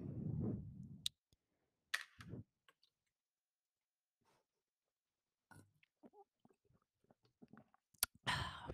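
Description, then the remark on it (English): Someone sips lemonade, with quiet slurps, small wet mouth clicks and swallows spread across a mostly silent stretch, ending in a short breathy exhale. “i'm gonna take another sip of my lemonade because it, it was really good”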